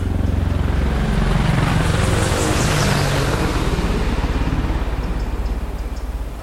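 Two air force helicopters fly just above the treetops near a military training area, roaring past with a heavy, rapid rotor thudding and a broad engine rumble that stays loud throughout, easing slightly toward the end. No one speaks.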